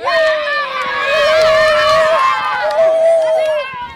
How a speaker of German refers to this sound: Kann man bitte alle tanzen? Jubelapplaus!